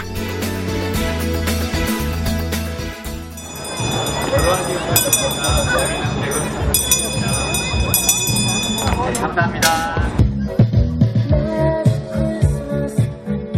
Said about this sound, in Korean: 야, 이제 종소리가 들리네요. 연말 분위기가 이, 제 나는데요.